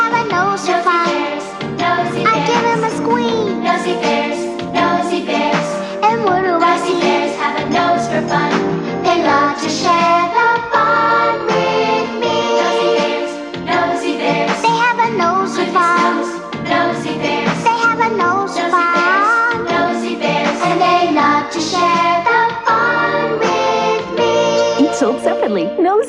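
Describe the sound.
A bouncy toy-commercial theme song plays loud for about half a minute, with a singing voice over a busy, steady backing of instruments.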